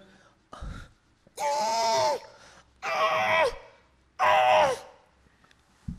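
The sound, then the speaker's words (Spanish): A person imitates pig-like animal noises: three loud, drawn-out, nasal squealing cries, evenly spaced with short pauses, preceded by a brief grunt. “esos em, sonidos de marsupial que haces. Es un chancho.”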